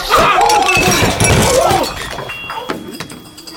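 Dishes and bowls crash and clatter across a table in a loud, chaotic burst, followed by a few scattered clinks and knocks as the mess settles.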